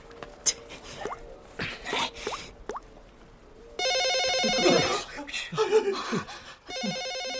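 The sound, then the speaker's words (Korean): A telephone rings in a small shop with a bright, trilling electronic bell in two bursts, a long one and then a shorter one, loud over scattered clattering and brief voices. “단체 예약한 손님 전화 아닐까요? 받아야 할 것 같은데.”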